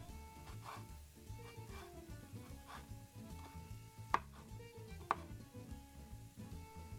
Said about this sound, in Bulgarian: Наситнявам някои от по-големите парчета,